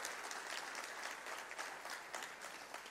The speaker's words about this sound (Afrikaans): kan ons net vir hulle hande klap gee asseblief?